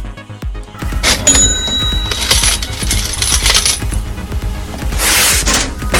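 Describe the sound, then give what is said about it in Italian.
A coin goes into a machine with a busy metallic clatter: rapid clinks and rattles, bright ringing tones, and a burst of jangling toward the end, with no talking. “Ora, nel frattempo, quando inseriamo la, mas- la, la, stavo dicendo, la mascherina, di, di, la monetina, la monetina riprendiamo”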